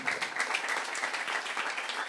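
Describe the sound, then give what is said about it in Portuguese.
A crowd gives a strong round of applause to the Lord, a dense wash of many hands clapping at once with no gaps. The sustained clapping is fairly loud, with no one speaking over it. “Dê um aplauso ao Senhor, bem forte.”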